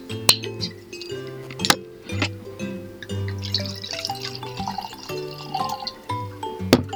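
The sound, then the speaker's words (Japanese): Wine from a screw-cap bottle glugs and trickles into a glass in a continuous liquid pour, broken by a few sharp glassy clinks of the bottle touching the rim. No one speaks. “じゃあ、ちょっと注いでいきますね。”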